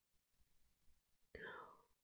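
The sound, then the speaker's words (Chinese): A voice imitates a rabbit's yawn: after a second of soft, breathy quiet, a loud open-mouthed yawn bursts in and slides downward in pitch, trailing off at the end, as the rabbit falls asleep. “兔子打了个哈欠，也跟着睡着了。”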